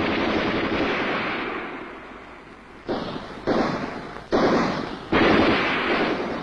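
Gunfire as Nationalist troops from Xi'an storm Huaqing Pool in Lintong before dawn on December 12, 1936, the Xi'an Incident: a dense, sustained rattle of shots fills the first few seconds, then four loud, sharp bursts erupt in quick succession, each trailing off briefly. No voices.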